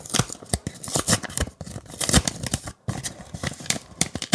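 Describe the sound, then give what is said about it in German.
An envelope being torn open, with a steady run of sharp, crackly paper rips and crinkles lasting several seconds, fairly loud, with a brief pause near the end and no talking. “ist wieder ein Umschlag.”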